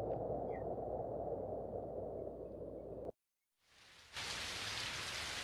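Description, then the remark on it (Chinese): Heavy rain pours down in a steady, dense hiss, cuts off abruptly into a brief silence, then swells back and returns loud and bright, hissing on without pause. “突然，大雨哗啦啦的下来了。”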